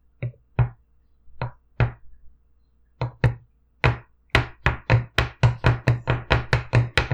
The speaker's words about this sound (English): That's some of the biggest footsteps I've ever heard.